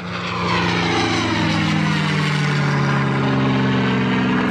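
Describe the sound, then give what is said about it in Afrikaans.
A propeller airplane taking part in the Adrenalin air show at Wonderboom Airport roars past loudly, its engine drone steady and then shifting in pitch as it passes overhead, with no voices. “Vliegtye is my nou pasens eh, Mustang Sally wat alles gaan deelneem aan die adrenalien lugskou by Wonderboom Lughawe.”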